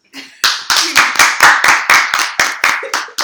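A single person claps their hands about a dozen times in a quick, steady rhythm, each clap sharp and loud, with a faint murmur just before the clapping starts.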